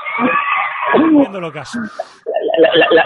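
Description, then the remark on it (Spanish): Excited fans shout and scream together as they ask a man for selfies, a loud, dense tangle of high-pitched voices that briefly drops out before surging back, with some talking mixed into the din. “Ya, ya oís los gritos de fondo, supongo.”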